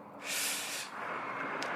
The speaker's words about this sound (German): Ja, Tag 185, ihr hört Straße. Ich bin zwar jetzt im ach so wilden Norwegen, aber auch hier gibt es Menschen, die Auto fahren wollen und deswegen sich eins Straße bauen.